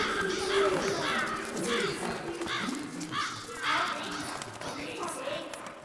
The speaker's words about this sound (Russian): А затем каждая фигура рассыпалась на сотни осколков, превращающихся в ворон, и они взлетели ввысь.